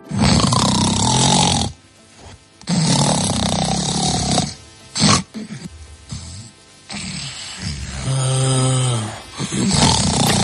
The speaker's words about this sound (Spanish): Pues alguien que ronca, sí, pero. ¿Te has dado cuenta, no? Del espacio de tiempo que de repente se queda ahí. Porque esto pasa, estás durmiendo tranquilamente y de repente puedes dejar de respirar, ¿no? Durante unos instantes.